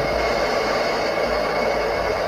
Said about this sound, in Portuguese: Pessoal, desculpa aqui pelo barulho. É... Acabaram de ligar o liquidificador